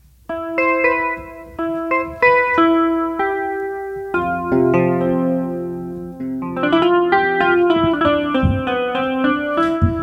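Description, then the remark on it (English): Clean electric guitar tones from a virtual instrument's Electric Clean sound play alone: a run of picked single notes with short decays, then fuller ringing chords with slight wavering and bends toward the end, moderately loud. “Electric Clean.”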